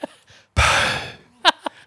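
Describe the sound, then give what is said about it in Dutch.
A voice imitates a silent, dry, non-rattling fart with a long, breathy hiss lasting under a second, followed by a couple of short voiced bursts, fairly loud. “ja. de droge uitlaat.”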